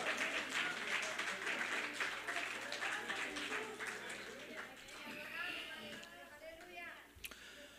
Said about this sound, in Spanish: Aleluya, gloria al Señor. Dale ese aplauso fuerte al Rey de Reyes.